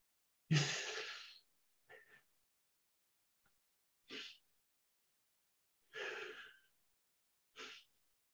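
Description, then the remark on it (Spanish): Audible breathing demonstrating the breathing pattern of sadness, three short inhalations and one long exhalation: one long, airy breath and several short, separate breaths spaced out by pauses. No talking. “En la tristeza, el patrón de respiración tiende a ser de este tipo. Tres inspiraciones cortas y una expiración larga.”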